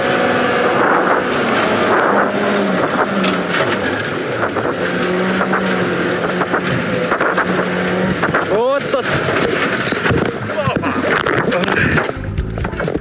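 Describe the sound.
A rally car flies into a corner on a snowy winter stage of Rally Karelia 2021 in Karelia, Russia, in the dark; its engine roars loudly and continuously, pitch surging and dropping through gear changes as it races hard, with faint voices mixed underneath.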